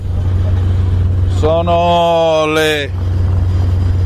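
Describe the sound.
Winches on the fishing boat Savonarola slowly haul in a fishing net at 00:40 on Friday 30 July 2021, making a steady, low mechanical drone that runs unbroken throughout, while a man speaks briefly over it.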